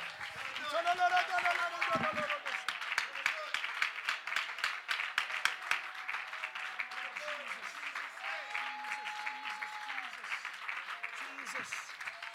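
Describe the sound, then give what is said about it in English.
An audience claps steadily and continuously in praise of Jesus, a dense wash of many hands, while voices shout and call out over it throughout. “I believe that as we're clapping, there are people that will be healed physically, emotionally, mentally.”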